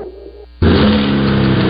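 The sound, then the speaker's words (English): A 2023 Chevy Silverado pickup truck's turbo high-output engine suddenly roars to life, revving loud with a steady throaty growl after a brief low idle hum, with no voices. “That's the sound of the 2023 Chevy Silverado's turbo high output engine, delivering 430 pounds per foot of torque with no compromised durability.”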